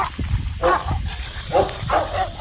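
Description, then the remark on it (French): A very large German shepherd dog barks repeatedly in a quick series of deep, loud woofs, about four or five barks, with no one talking. “On passe devant le dit bâtiment et on tombe nez à nez avec un berger allemand tellement grand qu'on dirait un berger alien.”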